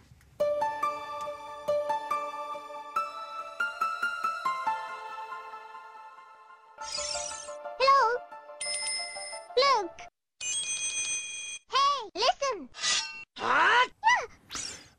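A video game music remix: a steady melody of bright, bell-like plucked notes gives way to choppy electronic passages with swooping, chirping synth sounds and abrupt stops.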